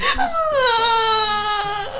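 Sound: person crying and sobbing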